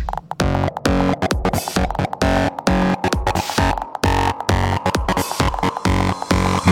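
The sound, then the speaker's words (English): Loud electronic music with a heavy, fuzzy distortion effect, thick and saturated, pulsing in choppy rhythmic bursts with brief gaps between hits. No one speaks. “Now, we need some fat distortion.”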